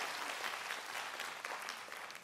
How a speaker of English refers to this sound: Give God a big hand clap.